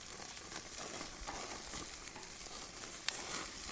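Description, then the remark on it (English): A steady, crackling sizzle of a burger frying on a hot surface, with dense popping and spitting throughout and one sharp snap near the end, continuous with no voices. “There's only one, and that was the sound effect. It lasts a fucking minute of listening to someone sizzle a burger.”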